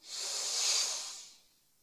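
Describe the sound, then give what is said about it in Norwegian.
A single long, deep breath drawn in through the mouth during a guided relaxation breathing exercise, a steady airy hiss that swells and then fades over nearly two seconds, with no talking. “Pust godt inn.”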